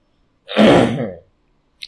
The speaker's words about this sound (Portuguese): Aliás, desculpa o pigarrear aí, é, é porque, né? Não tem muito como fugir disso.